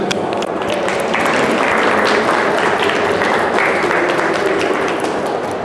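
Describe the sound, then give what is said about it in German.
Steady applause from a workshop audience applauding themselves at the end of the last workshop, dense and loud throughout, many hands clapping at once in a continuous wash of sound with no voices standing out. “Und Sie sollen jetzt nicht mir Beifall spenden, sondern Sie sollen sich Beifall spenden, dass Sie um 20 vor 4 hier sitzen und mir zugehört haben.”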